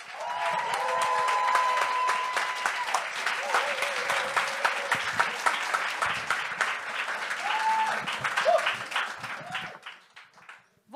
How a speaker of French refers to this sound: Est-ce que vous êtes prêts à accueillir la première invitée du show de ce soir? Un tonnerre d'applaudissements